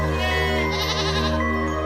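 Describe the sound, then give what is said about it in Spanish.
A goat bleats loudly in one long, wavering cry that lasts nearly two seconds, with no voices around it. “Según lo que sé, vivía solo, sin esposa ni hijos sin ninguna compañía más que esas horribles cabras.”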